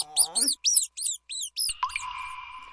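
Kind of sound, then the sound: animal, laboratory mice squeaking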